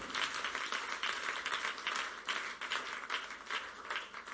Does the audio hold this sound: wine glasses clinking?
no